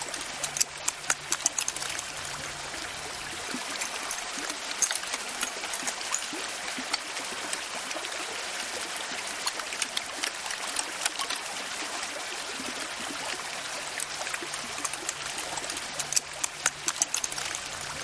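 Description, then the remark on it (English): Melting ice at Alaska's Columbia Glacier trickles and drips steadily, a dense crackle of small water sounds and tiny pops, with no voices. “Jonathan Storm recorded the sounds of ice melting at Alaska's Columbia Glacier.”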